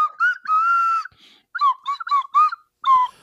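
A song tune is played loudly on a slide whistle: a held, wavering note followed by a run of short, swooping notes that slide up and down in pitch, with no voices.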